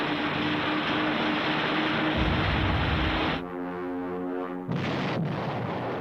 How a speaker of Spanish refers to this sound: Esta película ilustra el destino de un Stuka al ser perseguido por un Spitfire.